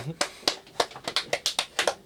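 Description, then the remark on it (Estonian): A small audience claps their hands after a prose reading, a quick, slightly uneven run of about ten sharp claps over two seconds, clear with no talking. “ja plaksutame ka.”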